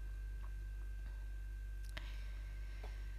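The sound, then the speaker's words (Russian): A refrigerator hums steadily, a low, constant drone with a faint high whine, broken only by a few soft, scattered clicks. No one speaks. “Ах, холодильник все еще чуть-чуть шумит.”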